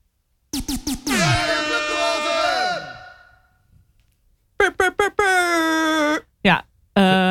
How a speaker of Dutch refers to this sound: Eh, die toeter kan in principe nooit ontbreken in welke jingle dan ook.